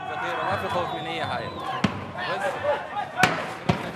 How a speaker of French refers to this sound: Quelques tirs à balles réelles résonnent. À chaque détonation, les manifestants se dispersent avant de revenir à la charge.